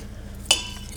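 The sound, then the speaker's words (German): A single sharp clink of cutlery against a plate as people begin eating spaghetti in a restaurant, bright and ringing briefly, over a low steady hum with no talking. “Aber ich würde sagen, jetzt essen wir mal.”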